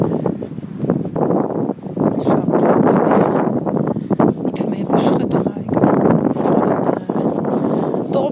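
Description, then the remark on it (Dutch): Loud, steady strong wind buffets the microphone outdoors during a walk, with a dense, rumbling roar that surges and dips throughout, nearly drowning out a voice talking underneath. “Volgens mij waait het enorm en hoop ik niet dat het al te veel invloed heeft.”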